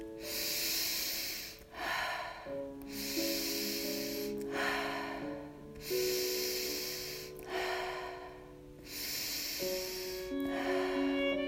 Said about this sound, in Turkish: Burnumdan nefes alıyorum, burnumdan nefes veriyorum. Şimdi burnumdan alıyorum, burnumdan veriyorum.